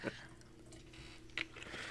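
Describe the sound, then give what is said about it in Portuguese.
Someone bites into and chews a fried coxinha snack, with two soft crunchy bursts amid quiet mouth noises and no talking. “eu vou pegar uma coxinha. Vamos experimentar.”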